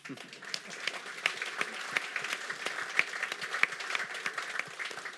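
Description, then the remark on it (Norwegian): An audience applauds a 28-season career that ended with the 50 km race at Holmenkollen in 1991, a steady, dense, even patter of many hands clapping with sharper individual claps poking through, holding at a fairly constant level for several seconds. “Det syns jeg faktisk er verdt en applaus.”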